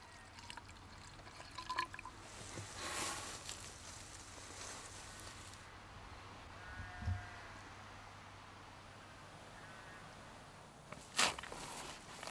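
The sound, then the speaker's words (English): Water is poured outdoors onto the soil of a field planted with broadleaf trees and is absorbed straight away: a few seconds of quiet splashing and trickling, with faint rustles and footstep-like scuffs before and after. No one speaks. “But if a field has been planted with broadleaf trees, any water you pour onto it is absorbed straight away.”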